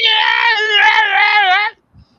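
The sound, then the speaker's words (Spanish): A loud, drawn-out performed scream of a dying character from a single voice, held for nearly two seconds with a slightly wavering pitch before cutting off abruptly, followed by a brief faint thump. “escuchan por última vez un grito de Flynn”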